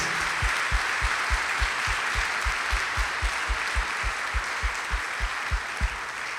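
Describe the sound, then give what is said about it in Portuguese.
An audience applauds what Jesus is doing in their lives, a dense wash of clapping that holds at an even level throughout, with a regular low thumping beat pulsing underneath at about four beats per second. No one speaks. “pode aplaudir o que Jesus está fazendo nas nossas vidas?”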